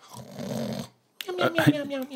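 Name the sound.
voice imitating snoring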